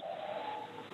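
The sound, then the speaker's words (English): A pet dog in the background gives a thin, sustained whine-like tone lasting nearly a second, faint against the quiet, with no one speaking. “don't know if you can hear my dog in the background there.”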